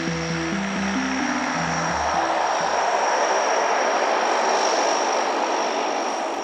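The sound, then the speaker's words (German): An airplane landing on a small runway in Fiji: a loud, steady jet roar with a thin high-pitched whine on top, while a lower engine drone shifts pitch and drops away after a few seconds. No one speaks. “Ich bin gerade in Fidschi gelandet nach einer viertägigen Reise um die halbe Welt.”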